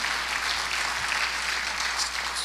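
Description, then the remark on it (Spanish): Steady, dense applause from an audience giving a round of applause to God, many hands clapping at once in a continuous, bright wash of sound with no voices standing out. “Dale un aplauso a Dios.”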